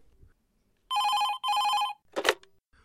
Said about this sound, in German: Äh, jetzt klingelt noch ein Telefon. Das hatten wir schon lange nicht mehr. Ich wusste auch gar nicht, dass die Küche ein Telefon hat.